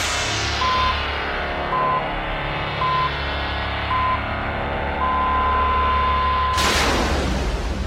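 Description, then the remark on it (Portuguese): A five-second time-sync signal from Rádio Notícias Verdes Mares 810 (Verdinha) for its affiliate stations in the interior: four short, evenly spaced mid-pitched beeps about a second apart, then one longer beep of the same pitch, all sounding over a dense wash of background noise. “Atenção, emissoras do interior, para o top de 5 segundos.”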